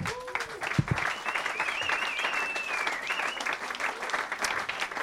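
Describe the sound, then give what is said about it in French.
An audience at the Blues Café applauds Philippe Ménard as he heads to the stage, a dense wash of clapping that holds for the full five seconds, with a brief whistle and a faint cheer rising through it. “Et nous, d'applaudir Philippe Ménard.”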